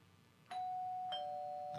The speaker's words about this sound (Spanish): Nos vamos hasta el estado de Chiapas, nada más toca el timbre a distancia para que suene allá en el estado de Chiapas.